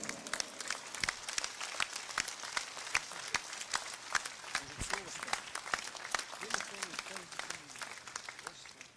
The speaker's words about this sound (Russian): Ваши аплодисменты Генриху Сечкину.